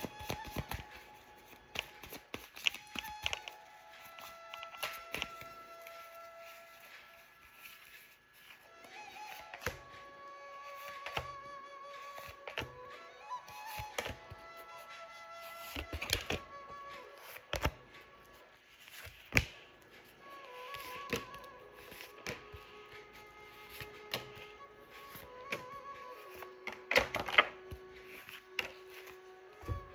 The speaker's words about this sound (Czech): Tak já už se dívám na vaši fotku, míchám u toho karty.